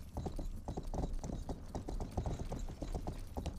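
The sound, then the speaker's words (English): Steady hooves clip-clop in a quick, even rhythm, a video game horse being ridden toward a quest objective, with a continuous rumbling low end and no voices. “By drive, I of course mean ride a horse.”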